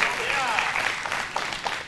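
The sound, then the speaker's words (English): An audience in church claps together in a dense, steady wash of applause, giving God a hand clap of praise, that stays loud for the whole two seconds, with a few voices calling out faintly underneath. “Y'all give God a hand clap of praise.”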